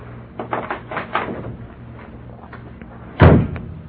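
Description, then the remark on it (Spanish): A door opens with a few soft rattles and creaks as someone enters, then after a short pause it shuts with a single solid thud, with no voices. “Ya entró. No oí que le quitara la llave a la puerta.”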